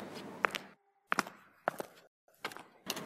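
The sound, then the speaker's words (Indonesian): Slow footsteps at night as someone walks slowly toward the back of a house, four or five heavy, evenly spaced steps with brief silent gaps between them, fairly loud with no talking. “Gue mulai berjalan pelan-pelan ke belakang.”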